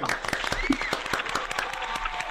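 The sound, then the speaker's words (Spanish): A crowd claps steadily for a show host, a dense patter of many hands at moderate loudness, with faint scattered voices mixed underneath. “Aplauso para él.”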